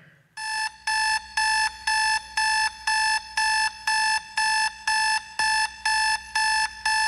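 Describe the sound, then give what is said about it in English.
An alarm clock rings loudly, a shrill electronic beep repeating in quick, evenly spaced bursts, about two per second, with no voices over it. “And you know what I do so many times? I press snooze.”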